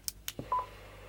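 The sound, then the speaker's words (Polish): A couple of crackly radio squelch bursts give way to a short mid-pitched electronic beep, two quick pulses fading into faint static, with no voices. “Teraz nacisnę trochę dłużej i przemiennik mi potwierdzi.”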